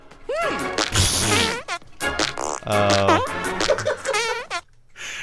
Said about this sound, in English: So here is our first uh, first entry in the fart quiz.